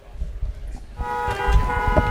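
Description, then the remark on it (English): Traffic rumbles, then a car horn blares in a long, steady honk for about a second, loud over the low road noise. “Looking for something to take your mind off this traffic?”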